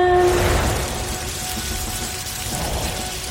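Water sprays from a garden hose in a steady, loud hissing rush that carries on without a break, after a short tonal beep at the very start. No one speaks.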